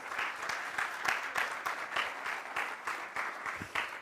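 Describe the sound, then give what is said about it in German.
An audience at a church service applauds a guest steadily, a dense wash of many hands clapping with rhythmic pulses, sustained throughout without anyone speaking. “Applaus für Chris.”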